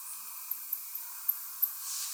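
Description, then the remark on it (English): Faint, sharp high-pitched ticks of microbats zooming around and echolocating to find insects to eat, a handful of irregular chirps over a steady hissy night-air background, with no voices present. “So we have to concentrate and use our ears to hear these microbats zooming around me right now.”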